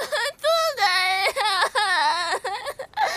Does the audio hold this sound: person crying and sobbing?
yes